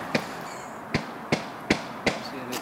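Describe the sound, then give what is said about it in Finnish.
Hammering from renovation work, six sharp blows struck at a steady, even pace, each ringing briefly over a faint outdoor background hum, with no talking, in an old workers' residential area around Kuuvuori in Turku, Finland. “tekee remontti.”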